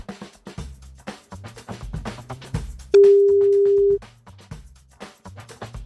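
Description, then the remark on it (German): A single steady ringback tone of an outgoing call to a mobile phone number, a loud, flat beep lasting about a second, sounds over a quieter busy background of music-like sound that continues before and after it. “Call geht raus.”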